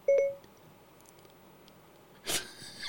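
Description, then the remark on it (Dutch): A call is placed to a mobile phone: one short, clear electronic beep right at the start, then near silence, followed by a brief burst of hissy noise toward the end. “Wij gaan eens even bellen met Jesse Wienholz.”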